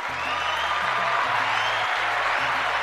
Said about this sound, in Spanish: Aplausos